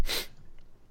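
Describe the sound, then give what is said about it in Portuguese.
A single sharp sneeze bursts out, a brief hissing explosion of breath that cuts off quickly and leaves near-silence behind. “Saúde.”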